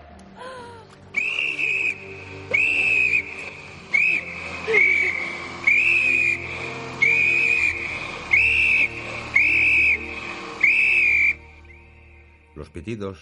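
In the film Titanic, Rose, swimming in the sea, blows a whistle taken from a dead officer's mouth. It sounds in about eight short, shrill blasts with brief gaps, the high pitch wavering shakily as each blast starts and fades over a low, murky background.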